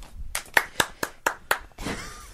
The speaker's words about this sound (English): single applause.